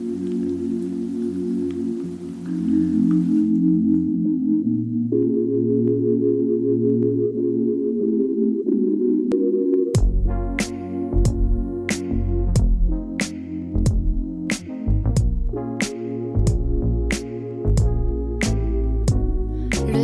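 A pop song plays: soft sustained synth chords open it, then halfway through a steady beat with punchy drums and deep bass kicks in, loud and upfront.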